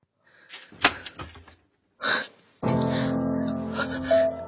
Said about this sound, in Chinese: 我在门边站了一下，把手抬起来敲门。